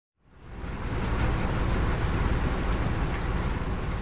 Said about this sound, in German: So hört es sich an, wenn Johannisbrotschoten zerkleinert werden. Die Maschine steht im Inselinneren von Mallorca und ist über 70 Jahre alt. Sie tut noch immer ihren Dienst. Sie ist groß, erstreckt sich auf zwei Etagen in einer großen Halle.